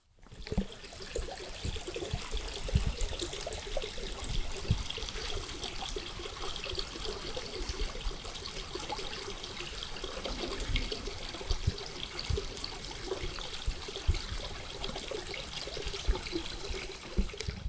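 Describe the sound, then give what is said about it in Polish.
A babbling stream flows steadily on a warm, humid day after rain, its continuous burbling and trickling water filling the whole recording with no voices present. “No, to nie tak, że gdzieś znalazłem jakiś dźwięk strumyka, tylko sobie faktycznie postałem chwilę przy tym strumyku.”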